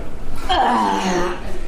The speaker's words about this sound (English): There she goes. That, that noise is … grunting as she lifts up a woman places her uh, on the food counter.